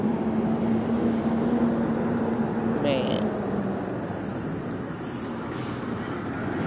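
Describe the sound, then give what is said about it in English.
A heavy truck rumbles past outdoors in the open in the early morning, its loud, steady engine drone and road roar filling the whole stretch while a man briefly speaks over the noise. “Okay, now this truck about to pass, y'all, so.”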